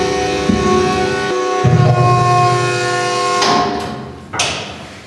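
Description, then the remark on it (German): Heavy metal bunker pressure doors, which lock from inside, grind and scrape as they are opened again, with a sustained mechanical rumble and tonal hum, then two sharp clanks as the mechanism releases; no one speaks. “jetzt haben wir komplett die Bunkeranlage verschlossen über diese Drucktüren”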